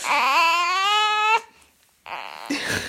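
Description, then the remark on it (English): A four-week-old baby girl cries out in one long, loud, high-pitched wail, falls briefly quiet, then starts up again with rougher, breathy fussing. “who is four weeks old and she's wonderful, but she's making some noise right now”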